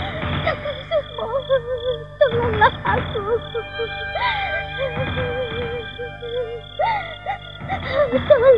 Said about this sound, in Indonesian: Aku tidak salah dengar. Aku mendengar tangisan seseorang. Jeritan seorang perempuan.